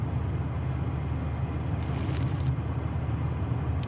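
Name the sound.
car driving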